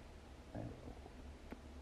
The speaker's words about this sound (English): As I burp, excuse me, I'm sorry. I'm so sorry.